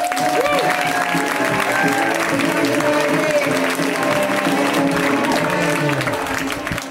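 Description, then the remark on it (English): An audience at a comedy show breaks into steady, loud applause as comic Mike Palascak is introduced, holding for about seven seconds, with cheering voices and a faint tonal hum blended into the dense clapping. “Let's hear it right now from Mike Palascak. Give it up.”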